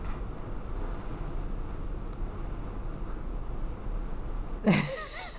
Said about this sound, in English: outside is really coming down. wow, right it really is, yeah. At the edge of the Pacific, and this rain is just pouring now. We're finally getting a whole California rainstorm.